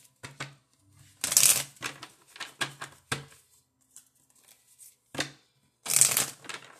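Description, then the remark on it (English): Jumbo love oracle cards being shuffled in a series of papery riffles and slaps, with two louder, bright bursts of shuffling among softer irregular card sounds and brief pauses, no voices. “All right, let me get my big love cards, my jumbo love cards.”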